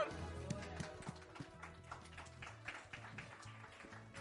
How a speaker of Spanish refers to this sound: Reciban con un fuerte aplauso